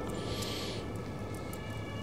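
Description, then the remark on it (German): An emergency siren sweeps up and back down once, high-pitched and thin, riding over a steady wash of low background noise before fading out; an intersection lies directly above. “Krass, dass man das Blaulicht hört.”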